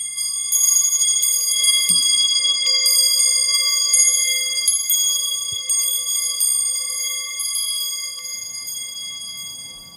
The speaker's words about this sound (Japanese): もう皆さんお分かりですね。明鎮火橋の音です。